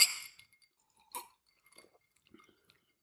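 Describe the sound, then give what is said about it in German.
Small liqueur glasses clink together in a toast: a bright, ringing chime at the start, a second clink about a second later, then faint rustling and sipping sounds, with no one talking. “Stö stößt man an bei, bei Likör, ich glaube schon, oder? Komm.”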